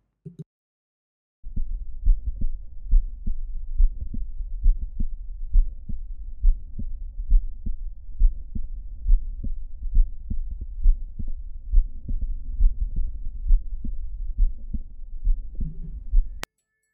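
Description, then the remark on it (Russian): A heart heard through a stethoscope at the cardiac apex, patient lying on the left side: a steady, muffled lub-dub rhythm with low thudding beats and an extra faint, variable mid-systolic click between them, continuing for about fifteen seconds with no voices. “Следующий неустойчивый среднесистолический щелчок, аускультация на верхушке сердца, положение лежа на левом боку.”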